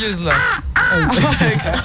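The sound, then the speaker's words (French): A person loudly imitates a big crow, letting out two or three harsh, nasal caws in quick succession, with no other sounds around. “Les gros corbeaux. ah, je le fais bien celui-là, je le tiens, je le tiens, je le tiens.”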